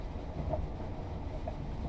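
Steady low rumble of the night limited express train Marimo heard from inside a carriage as it departs Kushiro, Japan, with a continuous rolling rail noise and faint rhythmic clatter, no voices.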